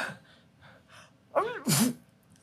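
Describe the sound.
A person performs a staged, fake sneeze: a rising, breathy inhale followed by a sharp, loud burst, preceded by a few soft murmurs.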